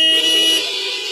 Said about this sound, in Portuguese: O sinal vermelho parou. Como é que faz a buzina, hein, gente?